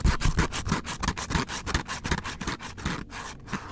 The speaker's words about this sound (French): Un soir, alors que j'essaie de m'endormir dans ma chambre, j'entends quelque chose qui gratte dans le mur, juste à côté de mon oreille.